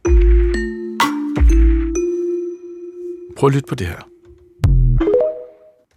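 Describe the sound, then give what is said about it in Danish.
The TikTok app jingle: a short electronic jingle of bright, chiming tones with a steady sustained note underneath, followed by a person speaking briefly and then a rising ding-like chime near the end. “Det er den velkendte lyd af TikTok.”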